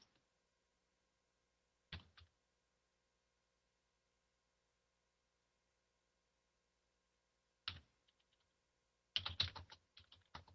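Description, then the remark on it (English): A man types on a computer keyboard in scattered bursts: a couple of isolated clacks, a pause, then a quicker flurry of keystrokes near the end, fairly quiet against a silent background. “as you hear the keyboard clacking of the man.”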